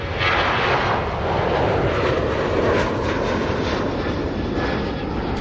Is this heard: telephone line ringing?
no